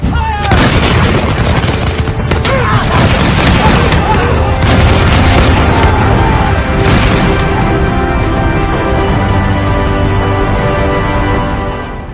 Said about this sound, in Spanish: varios sargentos repetían las órdenes entre los tiros y los toques de los atambores.